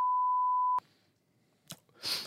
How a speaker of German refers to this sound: Aber ich wollte eigentlich nur den Vornamen sagen. Ist das jetzt schon irgendwie ein wir, wir, piepen, wir piepen den, äh, das können, können wir vielleicht machen, wir piepen den Nachnamen aus.